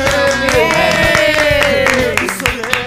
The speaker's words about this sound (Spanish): Aplausos.